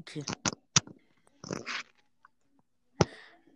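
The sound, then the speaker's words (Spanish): A few sharp, dry cracks of a person's bones being cracked pop in quick succession, followed after a pause by one more loud snap, with brief voice sounds between them. “No sé si esto es un podcast o estamos Tronando los huesos.”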